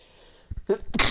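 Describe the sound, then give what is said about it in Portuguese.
A single close, loud sneeze: a quick sharp inhale followed by an explosive burst of breath, with no talking. “Gente, pausa para espirrar, peraí, viu?”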